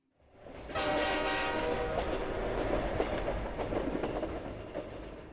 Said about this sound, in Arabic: اقترب أحد القطارات داخلا المحطة في ذلك الوقت رأيت القطار يقترب من رصيف المحطة وهو يصدر صوتا هادرا